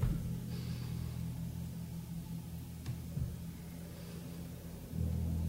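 A car engine rumbles steadily at low pitch as a car rolls slowly up onto a garage driveway, with a brief bump midway and a slight rise in engine noise near the end. No one speaks.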